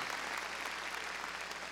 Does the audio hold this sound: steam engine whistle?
no